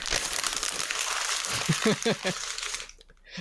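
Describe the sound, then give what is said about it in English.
Steady rustling and crinkling of paper being shuffled for about three seconds, with a brief voice murmuring partway through before the noise cuts off. “And the answer is shuffling paper.”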